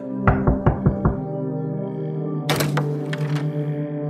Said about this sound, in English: I rapped on the dull wood and waited. After a minute, I knocked again, louder this time.